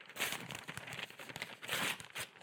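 A plain white sheet of paper, used as a prop, is crumpled up, a dense run of crinkling and crackling that swells and fades in two bursts over a couple of seconds, with no voices.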